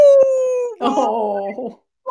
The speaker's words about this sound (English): sorry, I have a. Uh, howler monkey of a dog upstairs who's like oh,